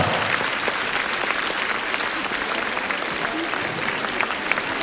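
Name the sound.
audience applauding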